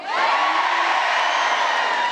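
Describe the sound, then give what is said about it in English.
A crowd cheers and whoops loudly and steadily for about two seconds, a dense wash of high-pitched voices with some children's shouts mixed in, with no one speaking; the crowd is cheering to vote for 'after' on whether to brush teeth before or after breakfast. “And give us a cheer for after.”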